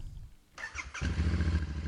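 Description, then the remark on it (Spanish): A motorcycle engine cranks over with a brief starter whine, then catches and settles into a loud, throaty rumble that revs steadily for the rest of the short clip. “Arranca tus motores y sal de la rutina a golpe de gas.”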